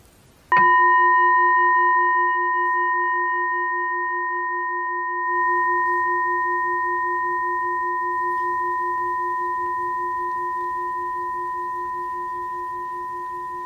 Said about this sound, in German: Ich werde mal kurz die Glocke schlagen.